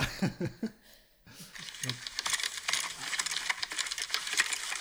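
A mountain bike rider takes a fall: after a brief vocal sound, a sustained burst of clattering, scraping and metallic clinks as bike and gravel tumble across rough ground.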